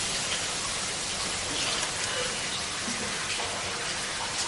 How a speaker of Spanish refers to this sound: En la ducha, el agua le limpia la sangre.